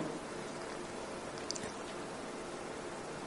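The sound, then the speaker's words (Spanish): A steady, continuous rush of flowing water from a stream of clear water running beside a path fills the scene with an even hiss, and a faint brief chirp sounds partway through. “Un arroyo va cercano al camino con aguas cristalinas y escuchas el ruido del agua y ves cómo fluye y nada la detiene.”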